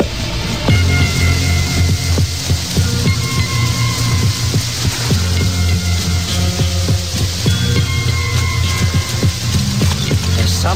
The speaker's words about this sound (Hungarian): Apró szemű szurkálós eső, agy vastagon ömlő, oldalról zógó eső, néha meg úgy nézett ki, hogy alulról esik az eső fölfelé.